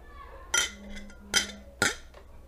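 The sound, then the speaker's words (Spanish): Glasses clink together in a toast of "salud", three bright, ringing taps spaced about a second apart, fairly crisp, with only faint background noise between them. “Pues sí, oigan, salud.”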